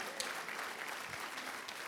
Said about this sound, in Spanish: Oh, aplaudimos, amén.